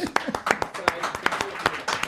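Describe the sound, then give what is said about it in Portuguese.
Audience clapping: a run of sharp, crisp hand claps in a loose, slightly uneven rhythm, moderately loud, with faint voices murmuring underneath. “Caralho, palmas.”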